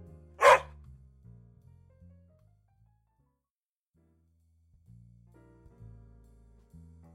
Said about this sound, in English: with a wag of a tail and a loud bark, he went away.